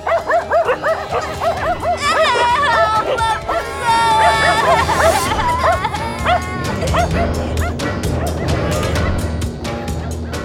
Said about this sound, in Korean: 동네 개들이 나서 깡패 철거반원들을 향해 격렬하게 짖는다.